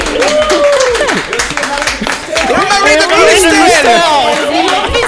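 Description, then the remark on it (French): A crowd claps and cheers together on Buzz Radio, steady applause mixed with many excited voices calling out and chattering loudly throughout. “On fait un gros bisou et un gros tonnerre d'applaudissement”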